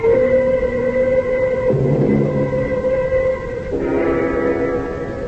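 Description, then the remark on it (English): A passenger train runs steadily under a loud, continuous rumble, its sustained whistle tones shifting pitch twice, with no voices. “We can get the train at one o'clock. Meet me on board.”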